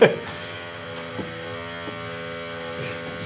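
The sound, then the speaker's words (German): A power tool at a construction site buzzes in a steady, continuous drone, starting with a brief louder burst and then holding an even, moderately loud hum with a couple of faint bumps. “Timing hier für die Baustelle, wie sie es gehört.”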